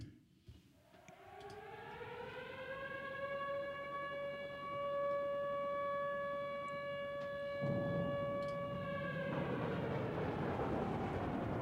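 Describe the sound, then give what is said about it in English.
A klaxon siren winds up from a low growl into a loud, sustained wail with a harsh, buzzy tone, holds its pitch for several seconds, then cuts away into rumbling noise. “Well, as ready as I can to hear a klaxon.”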